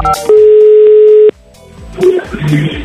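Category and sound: signal or alarm, telephone call dialing tone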